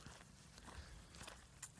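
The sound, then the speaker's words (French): Steady footsteps crunching along a path in the Forêt de Soignes, a regular walking rhythm of soft thuds and scuffs, with a faint open-air background and no talking. “En fait, j'aime bien ce format un peu intimiste, tant pis pour les bruits de pas et de forêt.”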